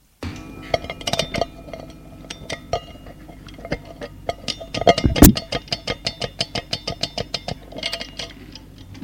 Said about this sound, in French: Remonte le réveil